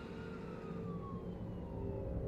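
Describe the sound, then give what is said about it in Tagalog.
An ambulance siren wails in a slow downward sweep over a low rumble of road traffic, steady, with no voices, heard at night. “Gabi-gabi akong nakaririnig ng sirena ng ambulansya na sobrang lakas.”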